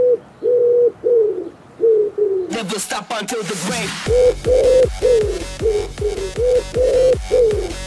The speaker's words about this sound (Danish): Og jeg kommer ikke til at kunne finde på noget fedt duenavn til det næste remix, fordi vi lavede ikke blot country remix, vi lavede også techno remix af duelyden.